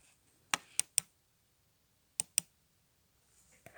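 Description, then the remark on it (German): Sharp computer mouse middle-button clicks: three quick clicks, a pause, then two more, followed by a faint click near the end, with no one talking. “Mausmittel, Mausmittel, Mausmittel, klick.”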